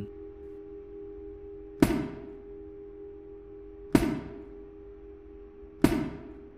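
Tools clank on a workbench three times, roughly two seconds apart, each sharp metallic strike ringing briefly and fading over a steady low electrical hum.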